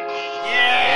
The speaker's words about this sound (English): yeah, that's a train horn.